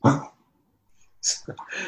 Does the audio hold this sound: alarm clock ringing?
no